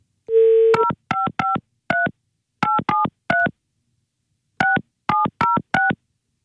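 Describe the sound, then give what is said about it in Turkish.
A short dial tone, then eleven crisp touch-tone keypad beeps dialed in quick clusters with brief pauses between groups as a phone call is placed, clear with no voices. “Evet arıyoruz şu anda.”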